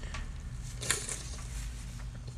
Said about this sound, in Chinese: 好恶哦！有听到我擤鼻涕的声音。